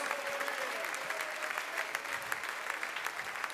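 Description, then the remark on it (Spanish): A church audience claps steadily for the Lord, a dense patter of many hands at moderate volume without pause, with no speech over it. “un fuerte aplauso a nuestro Señor.”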